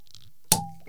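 A cork pulled from a beer bottle: one sharp, bright pop followed by a brief hollow ringing tone that fades out, then a faint soft rustle. No talking.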